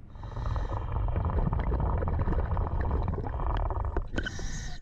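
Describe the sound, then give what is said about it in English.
A scuba diver unclipping a submarine from its platform about 30 feet underwater, recorded on a GoPro the diver wore: a steady, muffled low rumble of water with scattered clicks and a few sharper metallic knocks near the end, no voices. “And yes, you're hearing the actual sound of our actual diver doing the actual unclipping.”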